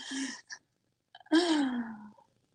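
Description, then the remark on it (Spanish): A woman sneezes once: a brief indrawn breath and a few small clicks, then a loud, breathy burst that trails off into a falling voiced tone. No talking. “Salud, coronavirus.”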